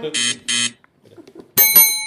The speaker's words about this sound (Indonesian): Kenapa lu pakai belnya luar? Kenapa lu di dalam pakai bel?